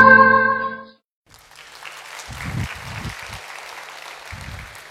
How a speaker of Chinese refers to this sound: 谢谢大家掌声。